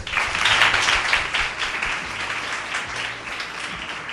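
A sustained burst of applause from a small group as four guests are sent off, dense, steady and loud throughout, with no talking over it.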